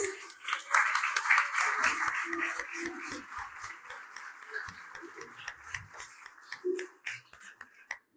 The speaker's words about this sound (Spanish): Gracias, Cristo. Un aplauso para Jesús.